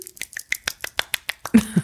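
A quick run of about ten sharp, snappy slaps from fingers flapping against a palm, a one-handed clap with the other hand, evenly paced, ending with a short burst of voice.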